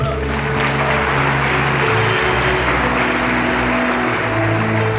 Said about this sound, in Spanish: Mire, denle un aplauso fuerte ahí.